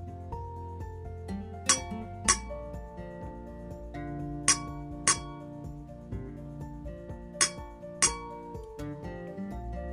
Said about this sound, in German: Hm, was haben wir gehört? Wir haben Glockenklänge gehört. Wie viele waren das? Habt ihr schon mitgezählt? Oder gibt es vielleicht einen anderen Trick, das Ergebnis herauszufinden? Ihr habt immer zwei Töne gehört